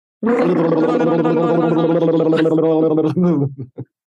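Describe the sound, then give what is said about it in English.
Someone imitates a drum roll with their voice, a loud, buzzing rolled-tongue trill held for about three seconds, then a couple of short sputtering bursts to finish. “Now, for our top most listened to episode, let's hear the drum roll.”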